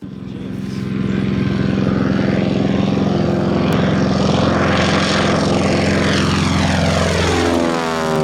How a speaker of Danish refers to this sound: Det var en flyvemaskine. Der fik du den.